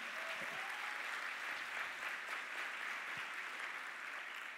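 An audience claps steadily as applause given to the Lord, a dense, even wash of many hands filling the whole few seconds at a constant level, with no voices standing out.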